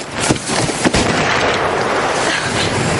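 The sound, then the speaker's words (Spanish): Two sharp, loud gunshots crack out in quick succession near the start as a Russian soldier on a beach shoots a fleeing German soldier, followed by a dense, roaring wash of noise that carries on to the end without pause. “Un ruso le fulmina.”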